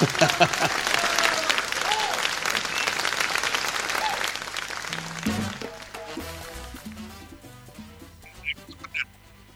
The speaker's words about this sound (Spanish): un aplauso, un aplauso para Álvaro Varela, que me hizo reír.